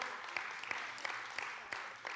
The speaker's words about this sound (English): And 12 of you are clapping when everybody should be at least throwing up something right about now.